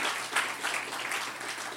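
Steady audience applause for a couple getting married the next day, a dense wash of many hands clapping at once, sustained throughout with no talking over it.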